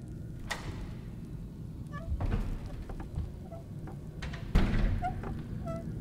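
A door opens indoors with a low, muffled thud, soft creaks and faint scraping, then a heavier knock near the end, over a dull background rumble. No one speaks.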